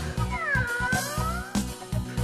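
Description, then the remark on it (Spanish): A single long, drawn-out cat meow that bends up and then slowly falls, heard over a steady, thumping musical beat that keeps going throughout. “Aquí está el gato.”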